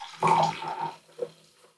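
Wine is poured into a glass, a brief gurgling splash of liquid lasting about a second before trailing off into quiet drips. No one speaks.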